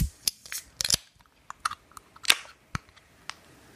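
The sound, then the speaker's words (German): A beer bottle being opened and the beer poured and foaming: a run of sharp, irregular clicks and clinks with a faint fizzy crackle between them, no voices. “wir werden das jetzt mal öffnen, würde ich sagen.”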